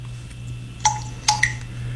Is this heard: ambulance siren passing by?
no